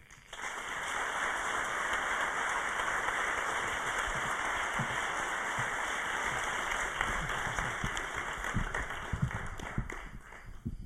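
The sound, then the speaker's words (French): Sustained applause from an audience, a dense, steady wash of many hands clapping at once, holding at an even level throughout with no one speaking over it. “Merci d'applaudir très fort”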